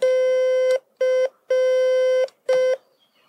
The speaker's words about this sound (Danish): Streg, brik, streg, brik. Streg, brik, streg, brik. Et C. Det er C.